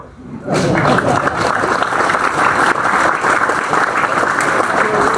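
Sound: audience applause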